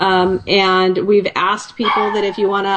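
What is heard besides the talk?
dog barking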